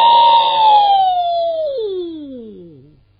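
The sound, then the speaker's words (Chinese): A storyteller's voice imitates a fierce northwest gale blowing sand and stones, with one long sustained wail, holding a steady pitch before sliding gradually downward and fading out, like a gust dying away. “西北方，天昏地暗，飞沙走石，狂风大作，就听你那风声，呜呜呜呜”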